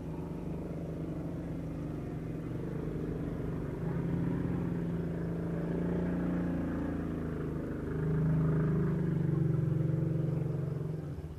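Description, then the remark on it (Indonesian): A motorcycle engine drones steadily, its low rumble swelling louder toward the end as it passes near a house, heard from inside a bedroom, with no one talking over it. “eh, sorry ya guys ya ada suara motor rumah gue deket soalnya gue ini rekaman gak di studio gak dimanapun gue rekaman di kamar serius jujur gue makanya kualitas audionya ya agak jelek ini sorry ya kalau tadi ada suara motor”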